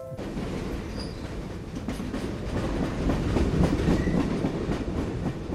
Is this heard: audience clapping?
no